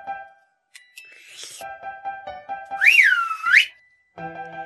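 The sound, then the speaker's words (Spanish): A loud, sharp whistle swoops up and down in pitch twice, set among steady, ringing tonal notes and a few soft clicks before and after. “Al escuchar el silbido, los ratones salían disparados, cada uno por su lado.”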